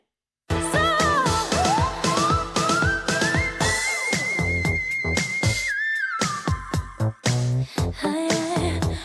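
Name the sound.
whistle register singing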